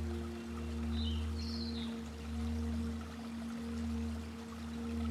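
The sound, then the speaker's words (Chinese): A babbling brook flows clear in sunlight, steadily, with a constant watery rush and a low, even hum beneath it; a couple of brief high chirps surface early on. No one speaks. “潺潺的小溪在阳光下澄澈、欢快的流动着。”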